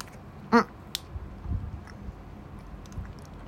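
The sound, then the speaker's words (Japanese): Soft chewing of a Lunch Pack bread sandwich filled with mentaiko mayonnaise, eaten as breakfast, a few quiet muffled bites in irregular rhythm, preceded by a short tonal hum and a sharp little click, with no talking. “まあ、とりあえず食べますまあどっちでもいいでしょ朝飯っぽいしはいいただきます”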